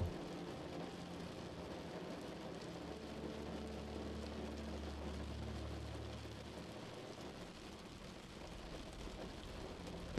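Steady, soft rain patters against a window glass with a continuous hiss and a low rumbling undertone, unbroken by any voices.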